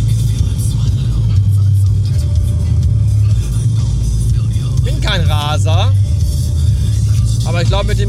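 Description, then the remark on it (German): Steady low engine and road rumble fills a car cabin while driving on a motorway at 170, constant and loud, with a man's voice briefly speaking over it near the end. “Es ist, es ist sehr angenehm.”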